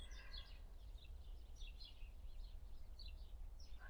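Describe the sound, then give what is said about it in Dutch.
Small birds chirp in quick, scattered bursts throughout, soft, over a steady low rumble of background noise with no one speaking. “Dat je het geluid kan horen van die vogeltjes, omdat er rust is, omdat je aanwezig bent, omdat je niet maar doorgaat.”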